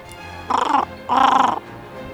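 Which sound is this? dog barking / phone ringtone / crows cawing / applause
crows cawing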